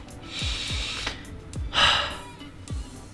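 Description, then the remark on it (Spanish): Audible breathing demonstrating an exhalation and the still point before the next inhalation: a soft airy breath followed by a fuller, louder exhale, then the sound settles into a quiet pause with only faint low bumps in the background. “Y si notamos también la breve pausa de la respiración, especialmente en el punto quieto, siempre hay un punto quieto en la respiración al final de la exhalación, antes de la siguiente inhalación. Algo como esto.”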